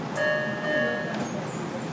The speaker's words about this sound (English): Please stand clear. The doors are closing. Pop out onto a train.